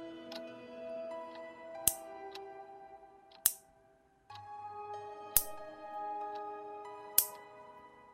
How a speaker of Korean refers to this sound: 뭔가가 부딪히는 소리 같기도 했고, 책상을 볼펜으로 두드리는 소리 같기도 했다. 굳이 말하자면 플라스틱과 플라스틱이 부딪히는 소리였다. 누군가가 의도적으로 내는 듯이 규칙적으로 들려오고 있었다.